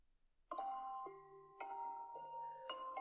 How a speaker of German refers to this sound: Oh, der Wecker klingelt schon wieder. Okay, noch fünf Minuten.